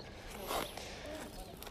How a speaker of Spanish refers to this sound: y aquí estamos, hoy por primera vez desde la calle. Como vais a poder escuchar alrededor mío, pasa gente andando, paseando, corriendo, en bici